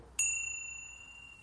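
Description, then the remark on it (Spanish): A single bright strike of a small crotal meditation bell, rung about 15 minutes into a live meditation to mark nearly the halfway point; a crisp metallic ding whose clear high tones ring on and slowly fade over the quiet background. “Cuando llevemos en torno a unos 15 minutos aproximadamente, tocaré el, el crótalo, el sonido de la campanilla,”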